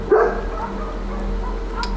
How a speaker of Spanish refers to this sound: Y voy a cerrar la ventana porque mi querido vecino perro Tango está ladrando.